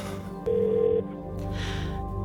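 A single steady electronic ringback tone from a phone call that is eventually answered sounds for about half a second, clear and moderately loud over a low background hum, then stops as the line keeps waiting.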